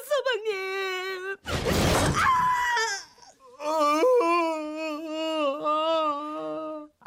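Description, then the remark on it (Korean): A young woman, the young mistress in a radio drama of Na Do-hyang's story 'Mute Samryong', screams and wails in long, high, strained cries, loud, broken by a harsh noisy burst partway through before the anguished screaming resumes. “아씨의 비명에 놀란 삼룡이는 정신없이 안채로 뛰어들어 작은 주인을 밀쳐낸 뒤 막고 있던 아씨를 들쳐오고는 주인 오생원에게 달려갔지요.”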